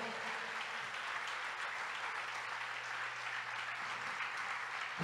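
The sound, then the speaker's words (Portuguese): A church audience applauds the Lord in a steady, dense wash of clapping that holds at an even level for several seconds, with a low constant hum underneath and no voices standing out. “Aplauda mesmo o Senhor.”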